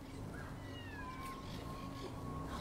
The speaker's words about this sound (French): Vous avez remarqué qu'on a un nouveau chat à Dora C'est pas croyable. On a un nouveau chat ici à Dora Geoula.